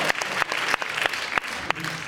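An audience at the RITV awards claps steadily as the director of Ciné Cinéma Auteur is called to the stage for the Ciné Cinéma Auteur prize, a dense patter of many hands with a few sharper individual claps standing out, sustained at an even moderate loudness with no talking.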